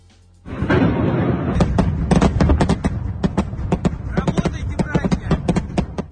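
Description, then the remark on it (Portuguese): Rapid bursts of anti-aircraft gunfire trying to intercept air attacks crackle and pop in irregular clusters over a continuous low rumble of bombardment in the Mariupol region of eastern Ukraine, sustained loud for several seconds after a sudden onset. “esse ruído que a gente ouviu aí mais picotado são armas antiaéreas para tentar interceptar os ataques aéreos.”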